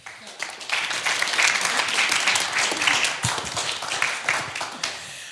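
An audience breaks into sustained applause at the close of an evening event, before moving on to drinks, many hands clapping in a dense, steady wash for several seconds, fairly loud, with no one speaking over it.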